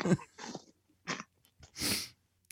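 A short fit of coughing: several rough, breathy bursts in an uneven rhythm, the last a long, harsh hack followed by a faint catch of breath. No talking.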